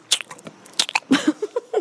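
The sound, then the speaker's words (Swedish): Wet smacking and crunching of a woman chewing food right at the microphone, a quick irregular series of mouth clicks and bites with faint breathy sounds between them. “Smaskar. Alltså hon smaskar och viskar.”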